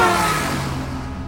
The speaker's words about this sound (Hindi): राहुल ये सब सोच ही रहा था कि अचानक उसके बगल से करीब करीब उसे कुचलते हुए एक ट्रक वहां से फुल स्पीड में गुजर गया